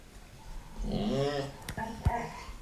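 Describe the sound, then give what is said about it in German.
A dog named Botta whimpers and makes odd, warbling vocal noises, a drawn-out whiny tone followed by a couple of short sharp yips and snorts, with no one talking. “Während wir jetzt die Frage gelöst hat der Botta ganz lustige Geräusche gemacht.”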